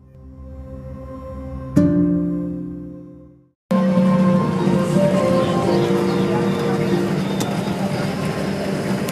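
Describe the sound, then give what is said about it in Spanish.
Steady low engine drone inside a moving bus in India in the morning, broken by a sharp knock and a brief cut to silence, then a louder, busier rumble of road noise with indistinct voices underneath. “Este es el sonido de la mañana desde el autobús la vida en el autobús es de lo que te voy a hablar en este podcast.”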